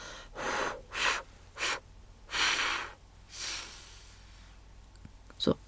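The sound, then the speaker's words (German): A breathy, complete exhalation through the mouth until the lungs are empty, pushed out in five airy bursts of varying length that fade toward the end, followed by a brief sharp click. “und dann atme erstmal vollständig aus”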